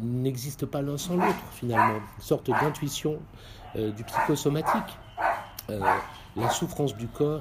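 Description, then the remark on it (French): A dog barks repeatedly, its short yaps mixing in with a man who keeps talking steadily throughout. “a des incidences, désolé pour le chien, hein, a des incidences sur la paix de l'âme et vice-versa.”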